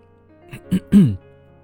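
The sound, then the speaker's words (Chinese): Someone clears their throat: two quick, rough little bursts followed by a longer, louder voiced rasp that trails off. No talking around it. “我双眸凝视着他，清了清嗓子，起身道”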